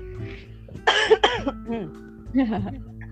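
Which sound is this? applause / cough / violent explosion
cough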